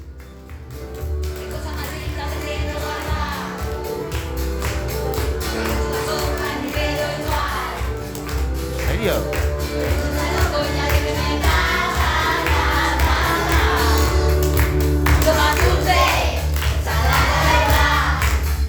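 A large group of children sings a song together over steady rhythmic clapping and percussion, the chorus full and loud from start to finish.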